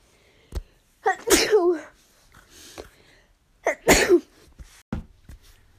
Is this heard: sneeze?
yes